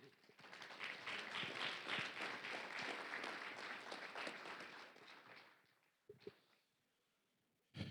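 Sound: audience applause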